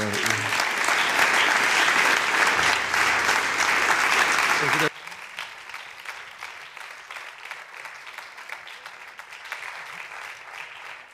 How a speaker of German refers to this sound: Wow, was haben wir für einen wunderbaren Herrn. Soll ich nochmal einen Applaus geben?